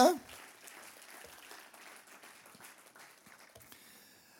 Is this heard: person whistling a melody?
no